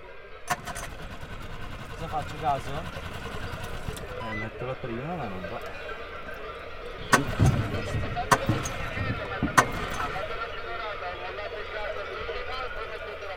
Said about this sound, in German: knattert der Motor dann vor sich hin.